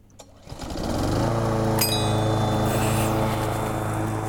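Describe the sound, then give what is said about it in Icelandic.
A lawn mower engine catches and quickly revs up, then holds a loud, steady droning hum with a buzzy, even pitch for several seconds. No one speaks. “þetta er sláttuðil jújú, mikið rétt, það er sláttuðilin”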